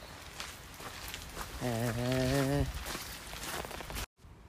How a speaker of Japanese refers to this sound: 今日はね残念ながら小雨なので、うん、雨の音がねポツポツポツポツ、うん、でもまたそれはそれでいい感じで